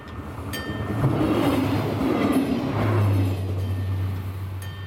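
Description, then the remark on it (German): A regional train on the Gräfenbergbahn line rumbles past the gardens of a housing estate in Buchenbühl, a steady loud roar of wheels on rails with a low droning hum swelling in the middle, no voices present. “Und an einigen Gärten führt auch noch eine Zugstrecke vorbei, die Gräfenbergbahn.”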